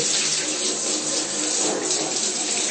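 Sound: water running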